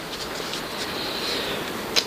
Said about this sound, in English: and by the way, if you hear something in the background, uh, um, we are getting some rain.